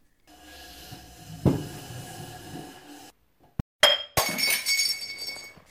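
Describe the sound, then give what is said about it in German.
A small glass bottle, being fetched from a high place, clatters and rattles, goes briefly quiet, then hits the floor and shatters with a loud, bright crash, shards tinkling and scattering as the sound fades. “So ein Mist. Ist total zerbrochen.”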